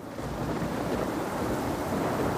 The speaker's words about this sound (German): Tagelang tobt der Sturm und die Bounty kämpft sich Meter für Meter durch das schäumende Wasser.